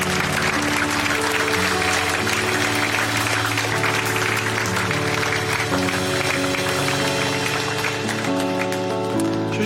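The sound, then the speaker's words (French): A church audience applauds and cheers for Jesus after a prayer at a morning service, in a steady, dense wash of clapping that stays loud for the whole stretch, with sustained keyboard or organ chords held underneath. “Et lui donne une belle acclamation ce matin.”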